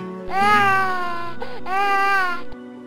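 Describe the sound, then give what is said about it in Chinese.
A baby wails in two long, loud, high-pitched cries separated by a brief catch of breath, the second cry trailing off abruptly; no one speaks. “在写这篇文章描述堕胎的情形时，旁边的英灵菩萨们此起彼落的哭声”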